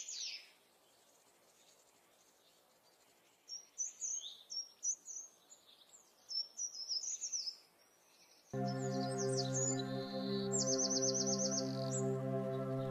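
Swallow song: quick, high, musical twittering chatter in bursts with a buzzy trill near the end; a loud, steady droning hum joins partway through beneath the birdsong.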